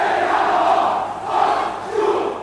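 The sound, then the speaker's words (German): Hundreds of street demonstrators, as two marches run toward each other, roar, whistle and cheer in a dense, continuous wash of voices, swelling loudly in waves over a couple of seconds, with no single voice standing out. “Beide rennen aufeinander zu, pfeifen und feiern, dass sie immer mehr werden.”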